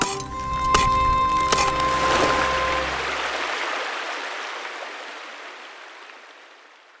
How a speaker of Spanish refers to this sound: rompieron la tierra que estaba en la boca del dicho dique, y sobre la orilla del río grande de la Magdalena, y habiéndolo hecho entró gran golpe de agua y corrió con gran violencia por el dicho río nuevo abajo según su corriente.